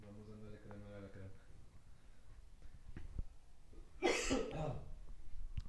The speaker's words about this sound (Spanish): De antemano les pido una disculpa si sigo tosiendo, pero sigo todavía con, con cierta...